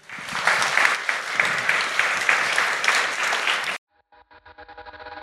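An audience applauds with dense, steady clapping for nearly four seconds, then it cuts off abruptly and soft tonal music gradually fades in.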